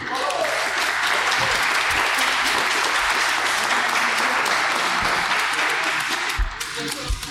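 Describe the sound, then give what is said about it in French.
An audience applauds the winners steadily for several seconds, a dense, even wash of many hands clapping that fills the whole stretch, with a few faint voices underneath. “Donc félicitations aux gagnants. D'abord, on peut l'applaudir.”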